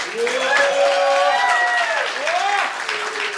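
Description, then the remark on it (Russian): A concert audience claps steadily for a few seconds for the performer's fellow soldiers, a dense, even wash of applause that barely fades, with voices calling out and cheering over it. “боевые товарищи, аплодисменты ребятам.”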